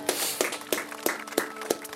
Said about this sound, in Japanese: 今大きな拍手していこう。